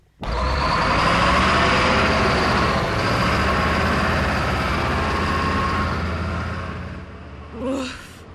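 A heavy city truck of the kind called 'delfín' roars loudly and steadily for several seconds, a broad rumbling drone, then fades as it passes, followed by a brief faint whoosh.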